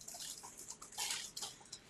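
Irregular crunchy crackling and rustling as Violet the cat plays in her little cat house, scrambling across its super crunchy walkway, in quick uneven bursts that are fairly quiet, with no voices.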